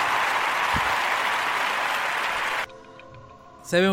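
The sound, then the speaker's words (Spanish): Loud, dense applause for the show's faithful listeners fills the first two and a half seconds, then cuts off abruptly, leaving a soft humming tone before a voice briefly starts speaking. “Vamos a ponerle un aplauso por eso, por los fieles poscarianos.”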